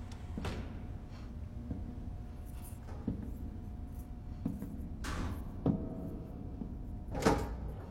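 A door of a dark room opens at night with a few soft clicks and scrapes, a couple of brief brushing rustles standing out over low, steady background hum.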